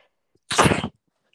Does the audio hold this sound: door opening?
no